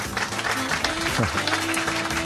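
A crowd claps steadily for a couple of seconds, a dense, even wash of applause at full volume, with a faint voice and some tonal hum running underneath.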